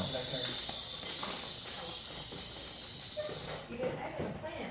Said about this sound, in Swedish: Ja, nu, nu hyschar hon här lite för att vissa pratar lite för högt.